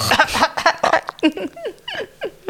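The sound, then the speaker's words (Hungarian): A person vocally imitates a cat hacking up a hairball: a fairly loud string of short, throaty, retching bursts in an uneven rhythm, with no words. “Mint amikor a macska lenyeri a sok szőrt, és Szőrt, akkor és akkor- fölköhögi.”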